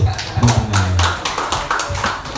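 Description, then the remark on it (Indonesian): An audience at a first-aid and CPR demonstration claps their hands in a quick, uneven patter of sharp slaps, fairly loud, while a voice talks at the same time underneath the applause. “oke oke oke oke tepuk tangan dulu”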